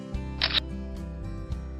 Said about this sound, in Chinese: 妈妈也应和的说：“好啊，来，小狮子，妈妈帮你拍一张。”